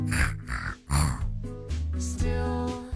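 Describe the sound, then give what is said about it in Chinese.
A person imitates a pig, making a quick series of loud, nasal grunts and oinks that stretch into longer, rough snorting sounds, with no speech. “学猪叫，我们一起学猪叫，一起哼哼。”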